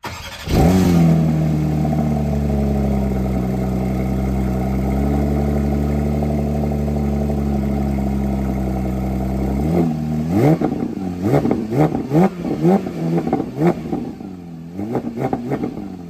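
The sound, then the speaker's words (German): A naturally aspirated flat-six GT3 sports car starts up and holds a steady, loud engine drone, then gives a series of sharp, rising revs and throttle blips near the end, with no one talking. “Sauger, Sechszylinder-Boxer, Sauger.”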